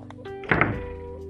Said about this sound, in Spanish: Cuando se encontraban adentro, la puerta se azotó.